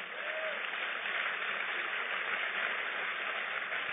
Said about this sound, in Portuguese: Pode aplaudir a Ele.